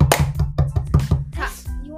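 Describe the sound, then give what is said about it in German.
A small group claps for about two seconds, sharp hand claps landing in a quick, uneven rhythm. Voices murmur underneath, and toward the end the clapping thins out. “Ein Leute, ein Applaus”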